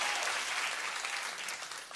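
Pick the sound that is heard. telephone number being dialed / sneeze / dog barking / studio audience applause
studio audience applause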